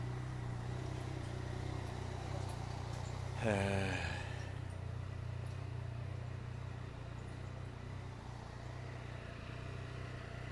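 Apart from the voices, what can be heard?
motorcycle engine running nearby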